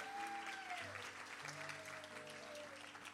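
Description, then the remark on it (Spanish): An audience applauds the Lord in a dense, steady wash of clapping, loud and sustained throughout, with a few sustained musical tones held underneath. “Denle claro que sí, den un aplauso fuerte al Señor.”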